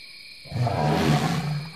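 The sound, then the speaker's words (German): A single loud elephant trumpet bursts in after a brief quiet moment and holds for over a second, a rough, roaring blare with no one speaking. “Dort drüben, der Elefant.”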